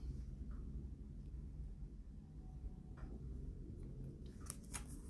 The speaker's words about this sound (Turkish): Bir yudum su içeyim.